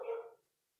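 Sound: dogs barking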